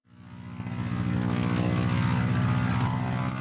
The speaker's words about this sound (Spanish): De un momento a otro aterrizó una avioneta en mitad de la calle. ¿Este es el jet privado que me había prometido mi jefe? murmuré.